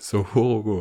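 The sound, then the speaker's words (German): A clear voice imitates a rooster's crow with one quick, rhythmic four-syllable call, starting with a soft hiss and rising into sustained, tuneful syllables, all in under a second. “Ist ein mhm. Hahn. Ein Hahn. Sogorogo.”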